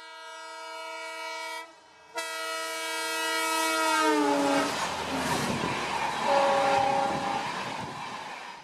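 A train's loud, steady tonal whine breaks off briefly, then slides downward in pitch as it slows arriving at the station at Amakura, giving way to broad rumbling rail noise and a short tone near the end.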